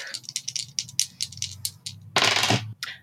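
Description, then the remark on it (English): Dice rattle and clatter in a quick burst of sharp clicks, ending in a louder rolling tumble before settling with a last click or two. No one speaks. “Now I'm rolling the sharp.”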